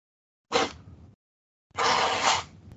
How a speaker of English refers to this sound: figured I'd rather just not talk over that so I can just cut it out clean rather than just like leave it in the background of me talking. Me blowing my nose? Indeed.